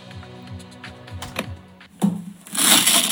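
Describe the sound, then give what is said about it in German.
Unpacking a braille typewriter onto a table in a Braille Typewriter Simulator program: a run of light mechanical clicks and knocks, then a heavier thump and a louder rustling, scraping burst at the end. No talking. “Jetzt wird die Punktschriftmaschine ausgepackt und auf den Tisch gestellt.”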